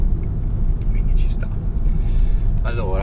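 Steady, heavy road traffic at 5:12 pm rumbles for the whole stretch, a dense low drone of passing vehicles with faint higher hiss and a brief tonal sweep near the end.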